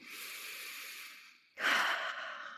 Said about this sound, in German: Wir schließen dazu unsere Augen, rollen die Schultern zurück und atmen erst einmal tief ein durch die Nase und aus durch den Mund. Das Ganze machen wir dreimal.